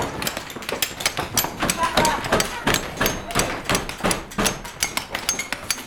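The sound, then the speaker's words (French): Many people with hammers, chisels and hatchets pound at the walls of a huge room, demolishing them in a dense, irregular barrage of sharp, overlapping blows, loud, with voices faintly mixed into the clatter. “On s'est tous armés de burins, de marteaux. De hachettes.”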